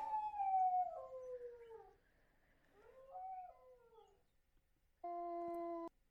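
A dog howls in two long, wavering cries that slide downward in pitch, fairly close and loud, followed after a pause by a brief steady electronic-sounding tone. No one speaks.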